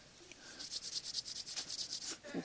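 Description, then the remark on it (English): Bible pages flip past in a quick run of soft, papery rustles, a steady riffling rhythm with no talking, as a church audience turns to Romans 5. “But it says for I hear pages turning.”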